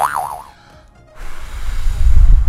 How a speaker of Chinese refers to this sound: 哦，对了，我这样对着麦克风吹气，你们不会有不舒服的感觉吧？